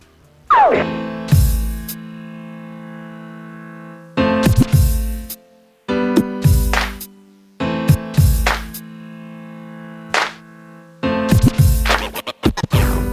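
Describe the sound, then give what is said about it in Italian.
A loud hip-hop instrumental track from a producer's album, with turntable scratches over sustained, chord-like tones and punchy drum hits that recur in a steady, looping pattern. No voices. “E sentite sto pezzo e diteci se dietro sto pezzo non c'è della cultura musicale a manetta.”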